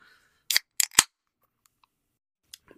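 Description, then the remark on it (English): A bottled tea drink is twisted open: three sharp, crackling snaps as the cap's seal breaks, a pause, then a couple of faint little clicks. No one speaks. “Uh, so I'm going to open this up and, and I, I, I'm saving this up because I love the sound of this”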